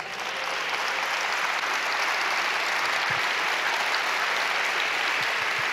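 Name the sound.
audience applauding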